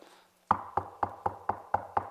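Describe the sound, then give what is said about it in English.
Seven quick, evenly spaced knocks on a door, loud, each with a short hollow thud, following a brief moment of near silence. No one speaks. “you get a knock at the door.”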